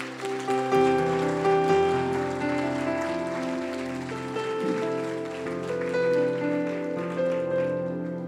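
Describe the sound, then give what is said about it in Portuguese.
An audience at an evening church service applauds the Lord steadily for several seconds, a dense rain-like patter of many hands, while sustained keyboard chords hold underneath. There is no talking. “Você pode aplaudir o Senhor aqui nessa noite?”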